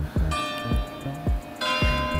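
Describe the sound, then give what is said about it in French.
Church bells ring out in a steady, rapid peal, about five strikes with bright, lingering overtones that overlap and hum together. The ringing is loud, with no voices. The bells ring in the town on 12 March 1643 because the provost of merchants, Alexandre de Mascrani, is very worried. “Voilà, tellement inquiet que ça fait sonner les cloches.”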